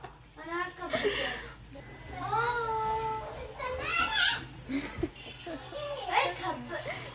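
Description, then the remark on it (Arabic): High-pitched children's voices chatter and squeal, rising and falling in excited, playful bursts with a whiny, almost crying edge, continuing steadily throughout with no adult speech. “ان الاطفال دي كانت هاديه تماما اول ما بدانا تسجيل”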